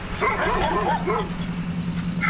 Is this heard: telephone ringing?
no